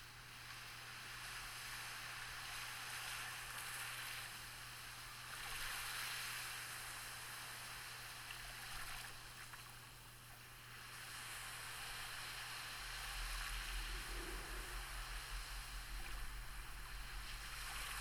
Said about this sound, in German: Leg deinen Fokus auf das Geräusch der Wellen.